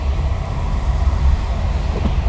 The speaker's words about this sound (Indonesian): maaf ya kalau berisik karena gue nger eh, ngerekamnya di mobil sambil ngerokok buka jendela